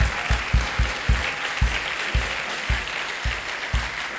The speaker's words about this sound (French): Acclamons très fort pour le nom du Seigneur Jésus.